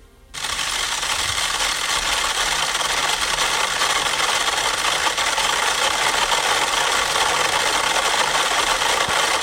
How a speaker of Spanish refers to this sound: Y de pronto entonces vamos a escuchar, fíjate cómo empiezan a sonar 100 metrónomos a la vez.